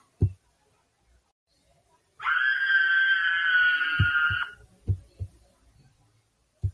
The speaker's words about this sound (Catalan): quan els lladres que roben i els crits de la gent demanant ajuda